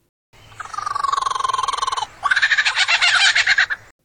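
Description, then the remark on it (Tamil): A lyrebird's mimicking call, loud with no talking: a steady rapid rattling trill for about two seconds, then a harsher, buzzier pulsing phrase that sounds almost frog-like. “பிற ஒலிகளை மிமிக்ரி அதாவது அச்செடுத்தாற் போல மாற்றிவிடக்கூடிய இந்த பறவைகளின் திறமை பற்றி பலரும் வியந்து போவதுண்டு இந்த பறவை இப்படி கூவலாம் இப்படியும் கூவலாம்”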